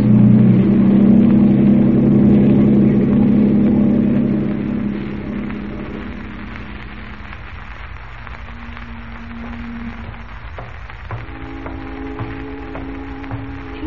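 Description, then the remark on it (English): A boat engine is started and throttled up, roaring loudly with a deep, throbbing drone for several seconds, then eases off to a quieter, steady rumble with a brief higher whine and faint tonal hums later on. “Now, start her up. Give her the gun”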